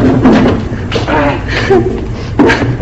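A chair is swapped for another and set down, producing a few heavy thumps and knocks at irregular intervals, fairly loud, with some shuffling between the impacts.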